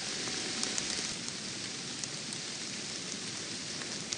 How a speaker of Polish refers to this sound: No i tutaj troszeczkę mi się rozpadało w lesie, więc chyba będę musiał zakończyć to nagranie na chwilę obecną.